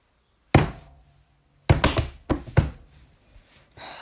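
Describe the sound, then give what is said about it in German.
A few hard letters drop and land with dull thuds, one alone and then a quick cluster of three or four, fairly loud, with no voices. “Jetzt sind alle Buchstaben runtergefallen.”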